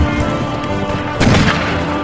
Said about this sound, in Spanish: Aparecen escenas de vaqueros. Hay balaceras.